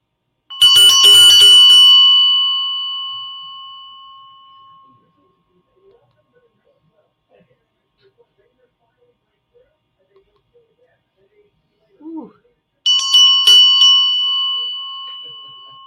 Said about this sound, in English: my little Indian India bell. Listen to this one. Tell me where you feel this.